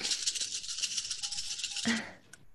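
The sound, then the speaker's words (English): A big pile of dice is rolled for a piloting check: a dense, continuous clatter of many small hard objects tumbling together, rattling loudly for about two seconds before stopping abruptly. “I love that sound. A big old pile of dice.”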